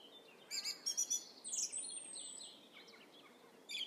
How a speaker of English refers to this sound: And it's only when you stop and listen to it, and there's nothing else that you're supposed to be doing but just walking through a woodland and listening to birdsong, that you realise how incredible it is.